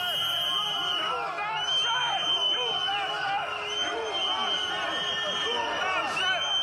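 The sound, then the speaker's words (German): A loud, agitated crowd of farmers shouts and jeers continuously, many voices overlapping, with sharp whistles piercing the din throughout, as they press and whistle at the Polish agriculture minister visiting the Agrotech agricultural fair in Kielce, Poland. “Aufgebrachte Bauern bedrängten ihn und pfiffen ihn aus.”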